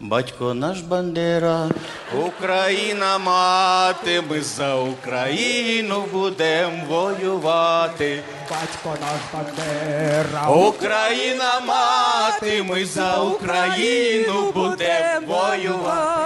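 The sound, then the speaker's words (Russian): A newly released pop song plays loudly and steadily, with a prominent sung vocal melody carried over full backing music and a repeating chorus-like line. “А давайте вот начнем с песни. Важные темы без песен начинать нельзя. Включайте.”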